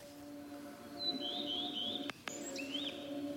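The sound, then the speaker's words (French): A few quick, high twittering bird phrases, fairly faint, ring out over a steady sustained drone that briefly cuts out partway through. No one speaks. “Le chant d'oiseau.”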